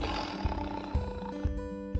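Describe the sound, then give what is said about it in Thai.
A jaguar roars in a rhythmic series of deep, rasping grunts, about four loud pulses evenly spaced roughly half a second apart, over a steady tonal background. “ปัจจุบันนี้เสือจากัวเป็นสัตว์ที่ใกล้สูญพันธุ์ค่ะ”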